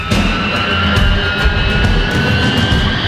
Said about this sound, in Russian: Вот и сейчас экипаж выбирает для двигателей режим Flex 49. Это означает, что они будут выдавать ровно столько тяги, сколько нужно. Лишнее использоваться не будет, да это и ни к чему. В 6.12 утра самолет начинает разгон